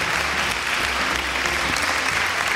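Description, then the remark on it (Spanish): A crowd applauding steadily, a dense wash of many hands clapping at constant loudness with no voices standing out, like a canned applause effect. “Sabía que iba a salir ahí a aplaudirme.”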